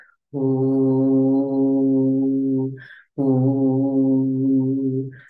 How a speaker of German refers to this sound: Versuch doch einfach mal einen Ton, zum Beispiel irgendeinen Ton, der dir einfällt, zu machen und diesen Ton lässt du jetzt in deinen Bauch wandern, so lange bis dein Bauch zittert, zum Beispiel.